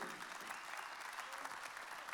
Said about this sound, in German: Äh, Applaus auf der Bühne